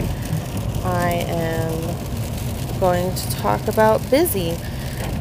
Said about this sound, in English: So, also, you guys could probably hear the rain on the car in the background. I am obviously not the one driving, just so nobody worries.